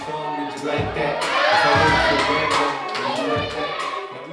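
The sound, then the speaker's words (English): A crowd cheers and exclaims in a sustained, excited swell, many voices overlapping with shouts and a few scattered claps, rising to a peak midway before easing slightly. “So a lot of us are good at creating moments, doing um, a power move, something to make the crowd go ooh or ah.”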